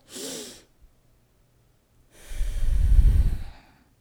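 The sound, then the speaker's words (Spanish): A deliberate deep breath: a short airy inhale, a pause of silence, then a long, louder exhale with a rushing, breathy low rumble, with no talking. “Cuando respiras, a veces dicen, ay, pero qué, es que la respiración es algo que hacemos, no tenemos que aprender a respirar.”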